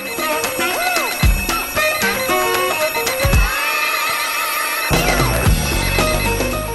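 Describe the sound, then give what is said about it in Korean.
A bright, busy musical jingle built around a warbling electronic telephone ring, used by a Korean FM radio show's morning-call service to wake listeners, with repeated trilling tones over rhythmic music and punchy low hits; no one speaks. “전화벨로 깨워드리고 신청곡으로 파이팅해드리고”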